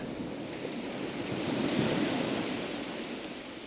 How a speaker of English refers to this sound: We leave you this week with the sound of waves lapping gently on a beach.